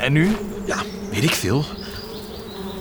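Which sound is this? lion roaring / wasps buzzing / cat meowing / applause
wasps buzzing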